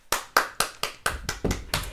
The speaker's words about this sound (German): Vielen Dank. Ich, äh, Applaus an dieser Stelle.